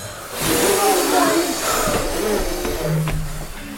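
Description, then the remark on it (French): A group of children make a long, loud whooshing hiss with their mouths, imitating a very strong wind as a vocal exercise. The breathy rush holds steady for several seconds, with a few faint voiced tones mixed in. “On arrête le serpent et maintenant on va faire le vent sur un vent très fort.”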